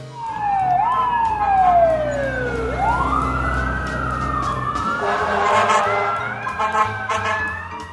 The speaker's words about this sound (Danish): Brandbilerne slukker for udrykningen, og ud af bilerne hopper en masse brandmænd, som straks går i gang med at slukke Sankt Hans-bålet.